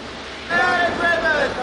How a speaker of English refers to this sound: While the launcher dangled a rope ladder above us, the tugboat backed in. With swells over 10 feet, timing was everything. At the top of the wave, we took a leap of faith and landed in the new world of deep sea mining.